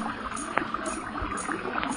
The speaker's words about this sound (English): Sounds like a broken water main, don't it?